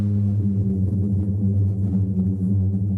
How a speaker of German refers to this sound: Bei Wind klingt es, als würde der Sand singen.